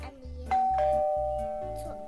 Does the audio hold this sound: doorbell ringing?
yes